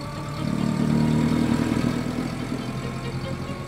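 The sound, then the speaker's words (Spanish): A grey car's engine idles with a steady low hum, then rises in pitch and loudness as the vehicle pulls away, heading toward Coyoacán, settling into a continuous droning rumble with no voices. “Subimos en él y emprendimos la marcha hacia Coyoacán.”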